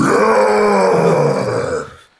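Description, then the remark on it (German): A person wearing a bear pelt with a bear head lets out a long, loud, rough growl imitating a bear, a single sustained guttural roar lasting about two seconds before breaking off abruptly. “Wenn du in einem hm. Bärenpelz mit Bärenkopf auch noch knurrst und brüllst wie ein Bär, dann, dann kommst du rüber wie ein Bär.”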